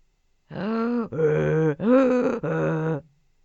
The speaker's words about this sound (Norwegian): Det var et esel. Og nå får vi besøk av Bror Esel, sa Frans.